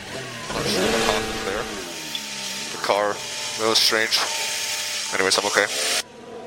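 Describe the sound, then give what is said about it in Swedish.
A racing car, driving alone with no one ahead, skids as it turns onto the wrong road; its engine roars and shifts pitch in the background while a voice talks excitedly over it, the sound cutting off abruptly near the end. “Och så sladdar han in där och så säger han Vi kan lyssna på hur det låter när han, när han kör in där”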